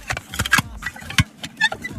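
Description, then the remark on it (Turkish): A plastic cassette case lid creaks and clicks as a music album cassette case is opened. A handful of short squeaky creaks and sharp plastic clacks spread unevenly over a couple of seconds. “Bak bu, bu ötüşü hatırlıyor musunuz? Kaset kapağı bu evet.”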